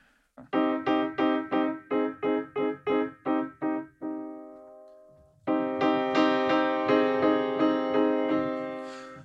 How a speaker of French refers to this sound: Donc là, ça c'est un son de piano assez, on va dire, classique.